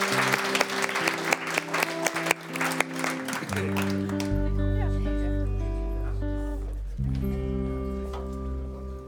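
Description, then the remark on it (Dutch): A burst of dense clapping from an audience for Mikael Zeiger of the Partij van de Arbeid and K. Gerbert of the PVV, lasting about four seconds, fading as steady, sustained musical chords take over and hold through the rest. “Eh, geef alsjeblieft een applaus aan Mikael Zeiger van de Partij van de Arbeid en K.”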